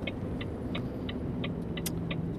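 A heavy snowplow truck engine rumbles steadily as it drives on a snowy road on a snowy morning in Riihimäki, with a regular light ticking or clinking repeating about every third of a second over the low drone.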